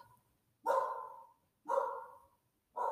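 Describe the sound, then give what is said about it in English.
A pet dog barks three times in a steady rhythm, about once a second, each bark loud and drawn-out, with the last one cut off at the end. No one speaks. “Sorry, my dog. It's so rude, I know, right?”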